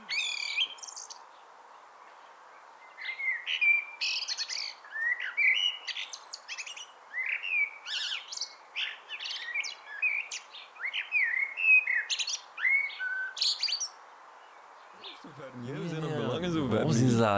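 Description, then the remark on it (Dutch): Young blackbirds sing a busy stream of chirps and warbled phrases against a steady hiss of background noise. Near the end a loud, low, wavering sound cuts in over the song. “Nu, dat zijn ook wel de jonge merels, moet ik zeggen.”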